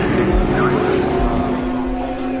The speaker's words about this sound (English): Here's some audio of just the cars as they come through the S's just before the final right hander before Tête Rouge.